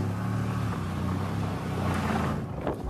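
An Audi RS7 sports car roars steadily at speed, its deep throbbing engine drone loud, with heavy wind rush sweeping over it throughout; no voices are heard.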